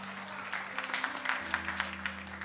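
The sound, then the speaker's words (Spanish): A group of people applauding the speaker for eight days of fasting: steady, moderately loud clapping with uneven bursts and a low constant hum underneath, with no voices. “Señores, un aplauso para mí.”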